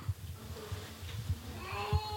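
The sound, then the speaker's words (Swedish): A cat comes in and lets out a drawn-out meow toward the end, over low, irregular thumps and a faint background murmur. “Ja, min katt hälsar. Kommer in och skriker, liksom.”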